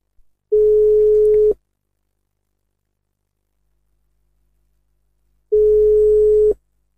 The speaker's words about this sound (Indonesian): saya undang salah satunya uh, saya telepon dulu ya semoga aja bisa segera diangkat